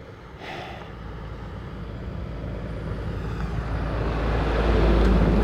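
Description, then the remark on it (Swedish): A continuous low roar of heavy road traffic that steadily grows louder over several seconds, like vehicles approaching and passing, with no voices. “Ja, full trafik.”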